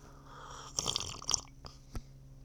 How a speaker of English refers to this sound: I'm gonna take a sip of my coffee after that one. Some ASMR for you guys.